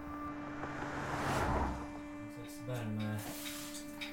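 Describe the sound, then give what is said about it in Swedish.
A heater fan that has just been switched on hums steadily in the background, a constant droning tone under a soft airy whoosh, with a brief faint voice-like murmur partway through. “Jo, han snudd på värmen bara. Fläkten bara.”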